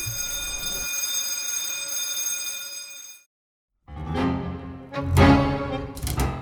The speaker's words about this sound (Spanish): En el último capítulo de esta temporada, un modesto homenaje a la democracia argentina, a la figura del timbre llamado a sesiones.